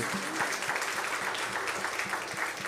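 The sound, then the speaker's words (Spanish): Steady applause from a crowd at a religious service, applauding 'our Father', a dense continuous patter of many hands clapping at an even loudness for a few seconds, with no voices standing out. “Démosle un aplauso bien fuerte a nuestro Padre.”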